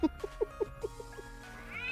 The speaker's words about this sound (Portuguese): Achou que não ia ter gatinho, amigo? Tem gatinho aqui também.